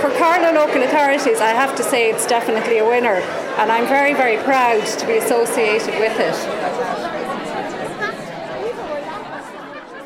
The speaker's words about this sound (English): I think everybody coming out is enthused and you can hear the buzz in the background.